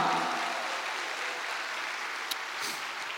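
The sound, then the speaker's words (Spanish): An audience applauds for the Lord, a dense wash of many hands clapping at an even, sustained level with no one speaking over it, and a couple of sharper claps standing out near the end. “Ahora sí, denle un fuerte aplauso al Señor, amado hermano.”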